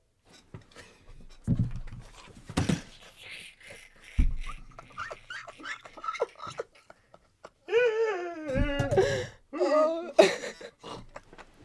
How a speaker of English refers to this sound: You're snorting